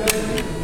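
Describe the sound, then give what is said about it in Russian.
Two short, sharp clicks of a biathlon rifle shot fired during a timed training session, a fraction of a second apart, fairly soft and set against a steady low background hum. “Выстрел.”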